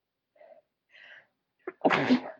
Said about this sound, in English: I'm about to sneeze. I'm so sorry, Riverdale gang.